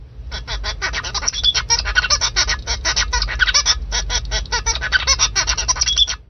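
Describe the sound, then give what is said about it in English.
A zebra finch tutored or cross-fostered by a Bengalese finch sings: a rapid, unbroken string of nasal, buzzy chirps and honk-like notes, fairly loud, continuing for about six seconds with no talking. “While a zebrafinch tutored or cross fostered by a Bengalese finch will form a song with different characteristics.”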